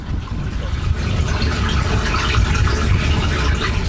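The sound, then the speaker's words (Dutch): Fresh water flows and gurgles steadily through a drainage ditch toward a pumping station that pumps it into the Oosterschelde, a continuous rush with a bubbling, splashing texture and no pauses across the whole stretch. “Wat je nu hoort, het water wat je later wilt, wil kunnen gebruiken. Dus alles wat nu hier zo, wat je hoort stromen, dat zou je kunnen opvangen om het in de zomer te kunnen gebruiken.”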